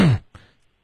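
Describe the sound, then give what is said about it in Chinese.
A radio host imitates a caller clearing their throat into the phone: a loud, gravelly rasp, a brief pause, then a shorter, softer second grunt. No talking accompanies it. “您咳嗽的时候、清嗓的时候，可以嘴离那个电话稍微远一些”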